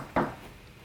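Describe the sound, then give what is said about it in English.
One dull, muffled knock at a door, short, followed by a brief fading resonance and then quiet room tone. Nobody speaks. “That was weird. I had a knock that? at the door.”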